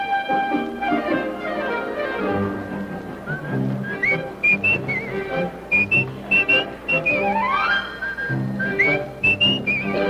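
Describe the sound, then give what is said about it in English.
A jaunty, Popeye-style whistled theme in a music cue rides over a busy orchestral backing, its bright tones leaping and sliding in short playful phrases that repeat through the passage, with no voices. “And what I really like about this little cue is the sort of jaunty uh, Popeye whistle theme that that you probably hear on the docks”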